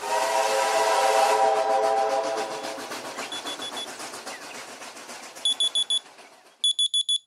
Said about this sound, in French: Il était 7 heures quand le réveil sonna.